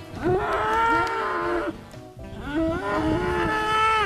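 Two long, loud cow moos on a cow farm in Wisconsin, each a drawn-out bellow lasting over a second, separated by a brief pause, with no talking.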